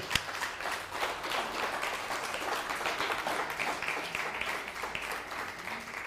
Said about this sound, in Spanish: abrazos hasta Cuba, un fuerte aplauso a Cuba.